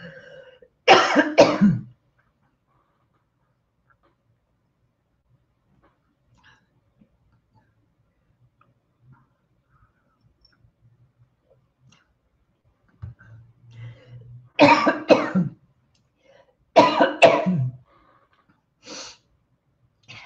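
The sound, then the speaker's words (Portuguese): A person coughs while hosting a live stream: a single sharp cough near the start, then a long quiet stretch before a cluster of several harsh coughs near the end, with a low throat sound leading into them. “Então, eu não posso deixar que a minha tosse seja um sabotador da minha live.”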